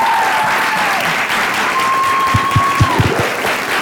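A steady wash of applause from a group, many hands clapping continuously and fairly loud, with a faint whistle-like tone drifting over it and a few sharper claps near the end.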